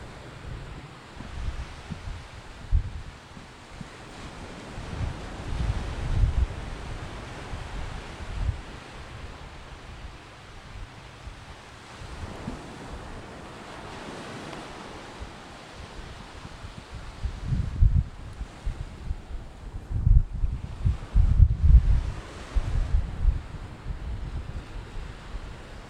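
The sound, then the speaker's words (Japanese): Ocean waves wash against the shore in a steady, broad roar, with gusts of wind buffeting the microphone and swelling louder toward the end, recorded in Kamakura, Japan, at Yuigahama beach and at the Kamakura High School No. 1 railway crossing. No one speaks. “いかがでしょうかねえ、気持ちのいい海の音、お楽しみいただけていたら嬉しいです。”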